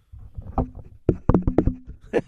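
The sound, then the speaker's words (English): A quick series of hollow knocks thud right against a microphone, about half a dozen dull raps in an uneven rhythm, loud and boomy with no talking. “And I'm the one who knocks.”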